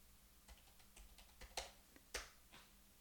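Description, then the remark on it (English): Crisp keystrokes tap out on a computer keyboard in an irregular burst of about a dozen clicks, with two louder, sharper strikes standing out, as a city name is typed into an address form; no one speaks. “City, edit, type in text, type.”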